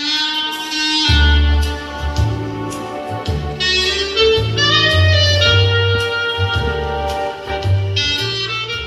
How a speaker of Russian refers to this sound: Исполнителей-инструменталистов было не так много, но и рояль Ольги Грачевой. И саксофон Сергея Шахова –